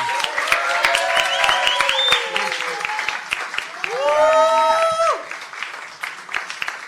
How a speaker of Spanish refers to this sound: Fuerte el aplauso.